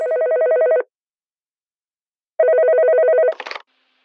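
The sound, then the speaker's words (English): A telephone rings twice in buzzing, trilling bursts separated by a pause, then a short clattering click cuts off the second ring as an answerphone picks up. No one speaks. “So we set up our very own, slightly fictional, One Voice for Neurology podcast, Answer Phone.”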